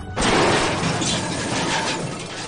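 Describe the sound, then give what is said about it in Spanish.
A Venetian cannonball strikes during cannon fire. A loud, sudden crash of shattering debris erupts and sustains a broad, noisy roar of breaking material that slowly fades. No one speaks. “Bueno, bueno, pues vámonos ahora que parece que están cañoneando cada vez con más insistencia estos, estos venecianos, la verdad, vaya, vaya cañones, vaya cañonazos Uy, esa bala, uy, esa bala, uy, esa bala, uy.”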